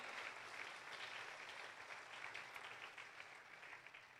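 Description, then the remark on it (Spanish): Sustained applause for the Lord from a crowd, a dense, steady wash of clapping hands that holds at an even level for several seconds with no voices on top. “Que alguien aplaude al Señor.”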